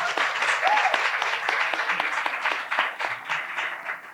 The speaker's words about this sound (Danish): I må gerne klappe.